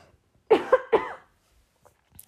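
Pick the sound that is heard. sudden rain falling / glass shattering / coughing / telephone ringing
coughing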